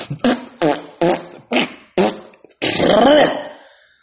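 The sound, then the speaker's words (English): Five short, sputtering fart blasts in a quick, even rhythm, then one longer, wavering fart that trails off. Loud, with no talking. “I'm going to let out the nasty shit now.”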